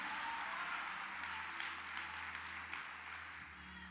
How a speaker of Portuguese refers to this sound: Se é para Jesus, meu irmão, coloca pressão nessas palmas.